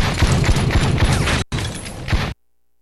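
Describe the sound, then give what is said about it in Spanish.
A loud, dense volley of gunshot sound effects, rapid overlapping shots fired in quick succession, briefly cutting out and then resuming before stopping abruptly. “No sé si querías los balazos o no.”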